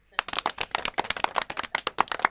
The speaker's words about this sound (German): Oder soll ich dir ein besonderes Klatschen geben? Ja, so ein richtig, so, so, so ein So pompöses Klatschen. Richtig, wie, bei Friends hinter den Kulissen.